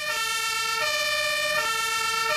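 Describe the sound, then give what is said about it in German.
A loud two-tone fire engine siren alternates between high and low pitches roughly every 0.8 seconds, steady, as fire trucks leave the station for storm emergencies such as fallen trees, with no one talking. “Plötzlich ist hektisches Treiben losgegangen, das Tor ist aufgegangen, die Feuerwehrmänner haben sich angefangen parat zu machen, alles ins Auto gerührt und sind losbraust.”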